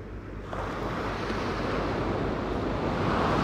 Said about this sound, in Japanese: 波の音すごいっしょ。